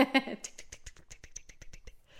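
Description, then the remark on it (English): A brief voice gives way to a quick, steady run of sharp clicks, about a dozen at an even fast pace, like a rapidly ticking clock, fairly quiet. “It sounded like a clock, a really fast clock, Yeah.”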